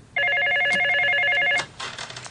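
An electronic cordless phone rings loudly with a rapid warbling trill, lasting about one and a half seconds before cutting off, followed by softer muffled clatter.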